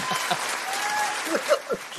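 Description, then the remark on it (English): A single person claps their hands in self-applause for about two seconds, sharp slaps over a steady hiss, with a few stronger claps near the end. “I'm going to give an applause to myself.”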